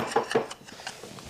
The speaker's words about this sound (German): Dreimal auf Holz klopfen. ich. Das war jetzt viermal. Nee, das war, war echt viermal, ne? Ja, jetzt hast du viermal ich hätte nur drei, ich hätte zweimal gemacht.